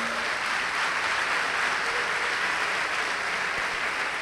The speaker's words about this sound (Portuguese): Se você crer, dá uma salva de palmas para Jesus.